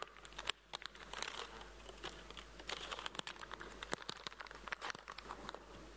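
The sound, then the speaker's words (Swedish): Dense crinkling of a slightly too small plastic candy bag, a steady run of sharp crackles and rustles over several seconds, with no one talking. “Jag har lite för liten godispåse känner jag.”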